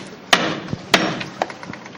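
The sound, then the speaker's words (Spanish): A capataz strikes a paso's llamador knocker in the street before the paso sets out, as the waiting crowd stays silent: two loud, sharp metallic-wooden raps about half a second apart, then a few fainter knocks trailing off, with no voices. “Escuchamos la llama.”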